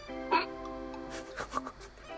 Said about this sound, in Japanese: しゃっくりが、しゃっくりが。